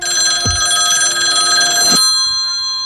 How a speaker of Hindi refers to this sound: घर का फोन बजा माँ ने फोन उठाया